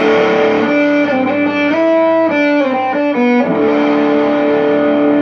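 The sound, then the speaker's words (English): A heavily fuzzed electric guitar played through a Tone Bender-style fuzz pedal plays a short riff of sustained, buzzing notes with thick, saturated harmonics, loud and alone, with a few pitch changes before settling on a held note. “And that to me sounds very tone bendery.”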